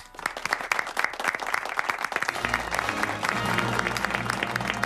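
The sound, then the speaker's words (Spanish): Loud, dense applause from a studio audience on the RPA regional radio show Desayuno Coliantes on Wednesday 25 August 2021, welcoming the show's film expert: a sustained ovation of many hands clapping quickly, with a low musical tune entering about halfway and continuing beneath the clapping. “aquí en Desayuno Coliantes en RPA, la radio autonómica, en este miércoles 25 de agosto de 2021 y ahora recibimos con un fortísimo aplauso a nuestro experto en cine”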